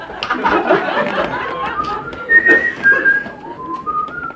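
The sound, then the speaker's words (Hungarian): A person whistles a melodic tune, the clear pitched notes sliding between steps over a busy background of murmuring voices and room noise. “Valaki itt fütyüli. Na, szeretném látni az iratot. Na, fütyüljed el.”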